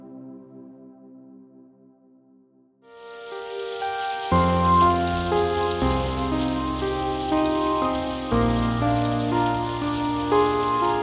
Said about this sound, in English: Light rain and calming music.